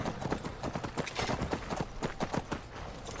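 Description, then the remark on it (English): Horse hooves clip-clop in a quick, steady rhythm, fairly loud, with sharp repeated strikes over a bed of background noise and no talking. “I just got off my horse.”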